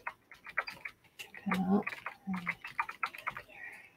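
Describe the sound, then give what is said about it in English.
Rapid typing on a computer keyboard, with irregular bursts of crisp clicks and clacks throughout and a brief low murmur of voice partway through. “Let me know if my keyboard is super loud.”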